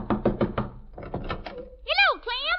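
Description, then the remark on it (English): Four quick, evenly spaced knocks on the wooden door of Daisy June's house, fairly loud, then a few softer raps before a voice starts speaking. “I just knock on the door”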